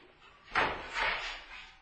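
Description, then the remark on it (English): A chair is lifted and set down: a sharp wooden knock followed by a longer scraping thud, then a softer bump as it settles. No one speaks. “So here's the chair.”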